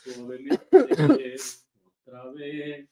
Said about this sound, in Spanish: Sí, sí, la, tos, la tos todavía no nos deja, pero fíjense que también hay una razón poderosa por la que la tos todavía no nos deja y es la contingencia de la CDMX.